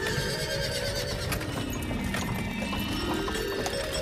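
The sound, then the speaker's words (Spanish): Horses neigh and whinny over a steady clatter of hooves from a carriage drawn by two horses, a busy continuous bustle with tonal calls rising above the rhythmic clopping. “El dios Mercurio, cansadísimo, reposa en una nube hasta que ve venir a la noche en un carro llevado por dos caballos.”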